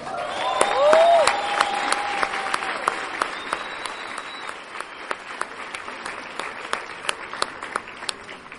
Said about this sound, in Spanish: Ahora, el punto no es aplaudir, Claro, un aplauso de bravo, bravo, pero lo va, a, demostrar lo que realmente es importante.